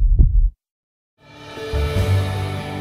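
A single deep, muffled heartbeat thump opens the program Latido, followed by a brief silence before a sustained musical swell rises and fills the rest of the moment.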